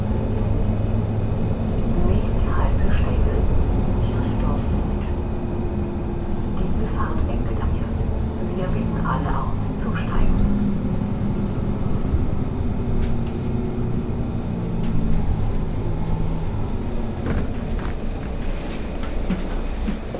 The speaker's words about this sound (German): Die Buslinie 13 fährt mich und viele andere BesucherInnen des Festivals durch ganz Wilhelmsburg.